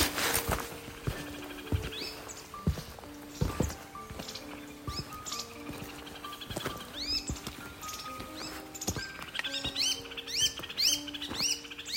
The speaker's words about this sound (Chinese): 不知道哪一种鸟这么大声，很特别。